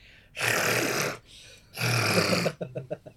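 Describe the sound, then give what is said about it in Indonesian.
Someone vocally imitates a big cat's deep purr, a sound heard outside a tent while camping in Ciwidey: two long, loud, raspy rumbling breaths, followed by a quick burst of short stuttering pulses. “terus tiba-tiba pas lagi tidur di tenda ada yang bunyi kalau lo tau kucing bunyi gimana kucing kalau tidur puring ya gitu kan kucing tapi ini gini puringnya”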